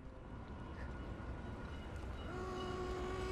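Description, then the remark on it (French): A train rolls into Gare Montparnasse in Paris with a steady, heavy rumble of wheels and carriages, and a sustained horn-like tone rises over it during the last second. No voices. “Lorsque j'arrivais gare Montparnasse”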